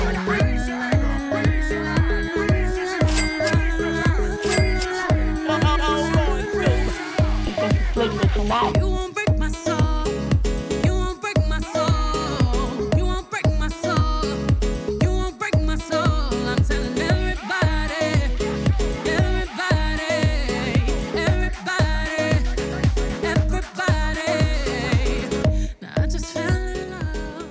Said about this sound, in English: The dance track is alright.